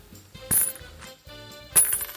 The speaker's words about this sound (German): Also dazu nehme ich jetzt meine Münze.